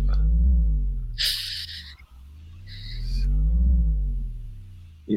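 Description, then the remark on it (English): A deep synthesizer drone swells and falls in two slow waves as its resonance is turned up, its resonant harmonics sweeping up and down while hissy bursts rise on top, like a huge creature breathing in and out. “A monster breathing. It does. It's. It sounds like a restless monster.”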